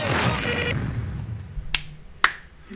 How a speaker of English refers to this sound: Woohoo! Check that out applauding the guy. On, applauding the guy on Fiverr that put that together for us.